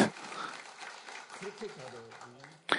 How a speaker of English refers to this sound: She is. Let's please clap your hands.